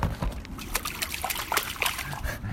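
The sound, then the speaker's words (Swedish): Close-by canal water at Långholmen laps and sloshes against a shore in irregular little splashes and trickles, steady and moderately quiet, with no voices. “Det är vattnet vid Långholmen.”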